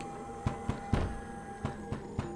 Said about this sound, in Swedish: Bank och slag.